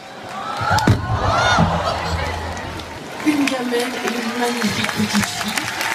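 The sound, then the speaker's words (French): A girl slips and falls on a stage made slippery by soap from bubbles thrown onto it, with a single sharp thud near the start, followed by a surge of crowd noise and people talking and calling out. “Les bulles, bah, elles tombent par terre. savon, euh, Voilà, c'est du savon. Elle a glissé.”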